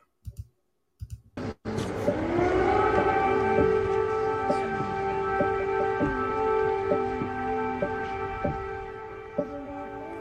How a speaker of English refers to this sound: Biden visits Kiev, Ukraine's embattled capital, as air raid sirens sound.